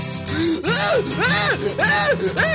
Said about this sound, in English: While driving down the street in my car, I scream at the top of my lungs, and when I do, it sounds like this.